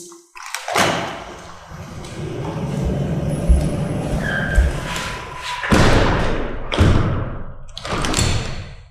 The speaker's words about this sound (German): Und jetzt schließt der Micha die Tür